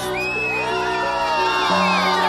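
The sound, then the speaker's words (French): A crowd in Afghanistan cheers and whoops continuously at passing soldiers and journalists in October 2001, as the American army enters the country; many overlapping voices with rising, high-pitched calls and shouts sustained loudly throughout. “Les soldats viennent d'ouvrir la route et ils se précipitent acclame tout ce qui passe, les militaires, les journalistes.”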